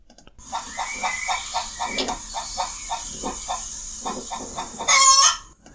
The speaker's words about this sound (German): Wir schauen uns das Huhn an wie es gackert.